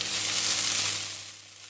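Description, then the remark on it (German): Clarified butter melting in a hot pan, ready for frying in portions, with a steady, crackling sizzle, fairly loud, easing off slightly toward the end. No voices. “Jetzt wird Butterschmalz in der Pfanne zerlassen.”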